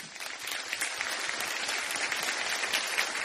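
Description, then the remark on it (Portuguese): A round of applause from a group, dense overlapping claps forming a steady, bright crackle that holds at an even level throughout, with no voices standing out. “Salva de palmas.”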